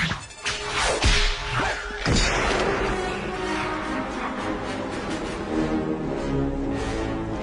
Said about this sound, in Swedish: Och piska bort den här äh, pistolen ur den här vetgiriga gangstern då som försöker råna honom då.